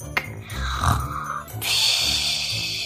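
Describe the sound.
A wolf lying propped against an old oak tree snores contentedly: a deep, rumbling snore draws in with a low, gravelly growl, then releases as a long, breathy hiss. One full breath cycle, loud, with no talking.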